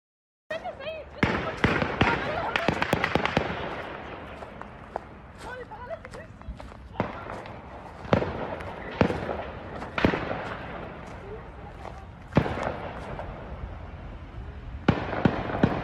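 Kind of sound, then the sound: impact, gunfire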